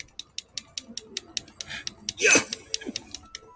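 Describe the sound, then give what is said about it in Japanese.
Rapid, steady clicking of game controller buttons being pressed while fighting enemies in a video game, about five taps per second, with a louder rustling burst partway through before the tapping continues. “これ、ネギ刻んでないよゲームのコントローラーのボタンをこう、押し寄るだけですね。”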